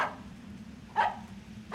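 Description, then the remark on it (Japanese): A dog, Taro, barks sharply two or three times at a van, with short gaps between barks over a low, steady background rumble. “太郎はワゴン車に向かって吠えています”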